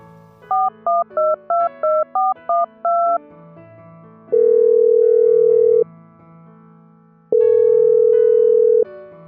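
Eight quick keypad dialing beeps are followed by two long, steady ringback tones of an outgoing phone call by a father to his daughter, separated by a pause, clear with no voices.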